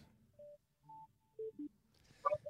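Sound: telephone keypad dialing tones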